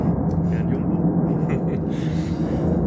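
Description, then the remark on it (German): A larger airplane roars overhead, a loud, steady low rumble that fills the whole stretch without fading, with faint voices barely audible beneath the engine noise. “wir lassen erstmal das Flugzeug vorbei. Ja, das war doch laut, doch sehr laut.”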